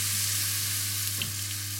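A small amount of water is dropped into a hot pan to test whether the pan is hot enough, sizzling with a steady, loud crackling hiss. A low electrical hum runs underneath, and no one speaks.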